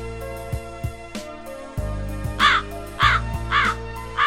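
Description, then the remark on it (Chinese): A swan calls four times in the second half, loud, harsh, nasal honks evenly spaced about half a second apart, over steady background music with a low pulsing beat. “伴随着天鹅的叫声，我就流下了一滴真诚的眼泪呀。”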